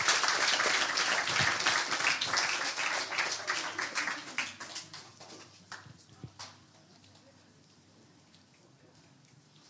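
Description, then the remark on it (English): An audience applauds with dense, steady clapping that gradually thins out over several seconds, leaving a few scattered claps before it falls quiet. “And um, yes, please give them a big round of applause as they deserve that very much.”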